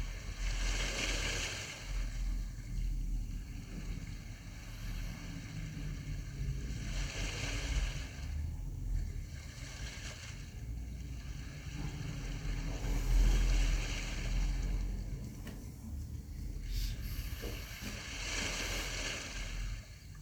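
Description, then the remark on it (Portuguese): Gentle small sea waves lapping and washing onto the shore in steady, soft surges, with a constant low rumble of surf and wind underneath; no voices, continuous. “Imaginando-nos a caminhar na baramar, mar sentindo as pequenas ondas tocar-nos meus pés.”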